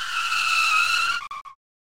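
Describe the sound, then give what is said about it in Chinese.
A sharp, high-pitched screech of skidding as a man brings a huge pumpkin he was rolling to an emergency stop, held steady for over a second before stuttering into a few short chirps and cutting to silence. “好险，那个男人把南瓜紧急刹车。”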